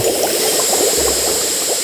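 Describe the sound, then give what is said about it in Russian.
Water bubbles at a vigorous, steady boil, a dense crackling simmer with a faint hiss, as a new large pot boils over onto a wood-burning stove. “Она закипела от возмущения, заливая печку кипятком.”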